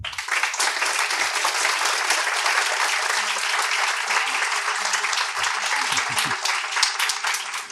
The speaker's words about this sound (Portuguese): Eu não vou pedir um minuto de silêncio ao professor Abraham Exterman, vou pedir uma salva de palmas a ele.